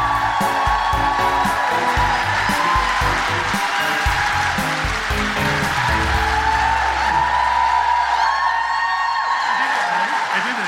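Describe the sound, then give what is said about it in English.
A large audience at a live Guilty Feminist show in London cheers, whoops and applauds continuously to welcome guests, with a dense, loud wall of crowd noise and a few high whoops rising above it, while music plays underneath. “Um, so please give a huge guilty feminist woohooing, cheering, break laws if necessary, smash the patriarchy in welcoming”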